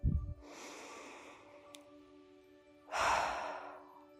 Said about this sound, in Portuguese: E solta o ar bem fortemente pela boca, fazendo esse barulho como eu fiz.